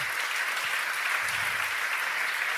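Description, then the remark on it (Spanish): A crowd at a sermon applauds the Lord, clapping steadily and densely, a continuous wash of many hands applauding at once, sustained and fairly loud throughout with no voices standing out. “Y si lo crees, dale un fuerte aplauso al Señor sobre todas las cosas.”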